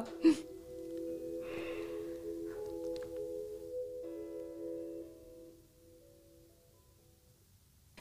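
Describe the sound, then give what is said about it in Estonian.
Soft, gentle tones from a toy with a glowing light on its belly play a quiet sustained melody after a small click, then fade away after about five seconds, leaving near silence. “ja noh, lisaks on tal siin hästi tore selline helendav äh, valgusekene kõhu peal ja muusika siis nüüd me siis jätame saate pooleli ja jääme kuulama seda”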